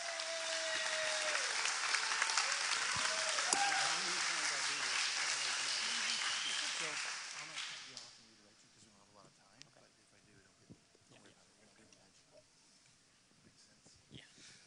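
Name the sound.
applause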